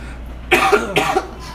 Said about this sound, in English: I'm not the only one coughing like a bastard.